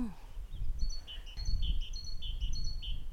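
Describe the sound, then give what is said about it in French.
A great tit sings a rapid series of bright, high two-note phrases, repeated rhythmically in a garden over a low rumble of outdoor background noise. “Et donc là, j'ai sorti mon application et elle m'a dit c'est une maison charbonnière.”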